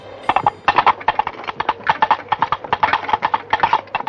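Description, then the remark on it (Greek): Hollow empty coconut shells knocked together by servants in a film in a quick, steady galloping rhythm, imitating horse hooves because there were no real horses. Clear, continuous clip-clopping for about four seconds with no talking. “Το γεγονός λόγου χάρη ότι οι πότες δεν έχουν άλογα και οι υπηρέτε τους χτυπούν άδειες καρίδες για να κάνουν τον ήχο του καλπασμού δεν ήταν σκηνοθετική πρωτοτυπία.”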